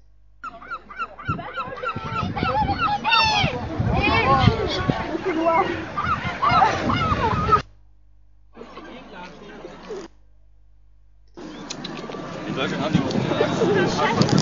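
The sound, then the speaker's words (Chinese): Geese honk loudly and repeatedly in a busy chorus with other waterfowl calls at a large lake in Queen's Park, England, on a spring afternoon, over a background of voices of schoolchildren on an outing feeding the birds crisps and bread, and crowd chatter; the sound cuts out briefly twice before the honking and babble resume. “嗯，接下来先放一小段女王公园鸟的叫声吧。”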